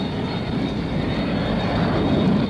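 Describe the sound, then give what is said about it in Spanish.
A steady, loud roar from the engines of a Concorde supersonic jet airliner, which made commercial flight at twice the speed of sound: a dense, continuous rumble heavy in the low end, holding constant for the whole stretch with no voices. “el Concorde ha convertido en realidad el vuelo comercial a una velocidad superior en dos veces a la del sonido.”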